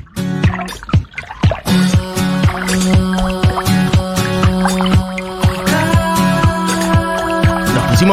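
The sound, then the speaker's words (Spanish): Water drops drip in quick, irregular plinks at first, then settle into a steady rhythm over sustained, humming musical tones. The drops are fairly loud, and no one speaks. “Bueno, acá unas aguas, unas gotas”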